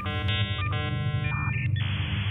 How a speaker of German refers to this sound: Sie hörte genauer hin und ihre Nackenhaare stellten sich auf. Es war das Einwählgeräusch des Modems aus Richtung der Kellertür.